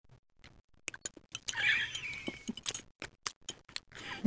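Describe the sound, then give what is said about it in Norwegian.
Chewing of squeaky cheese soaked in coffee (cheese in coffee, a Kven custom), with irregular rubbery squeaks and crunchy clicks, one longer squeal in the middle, no talking. “Det knirker bra.”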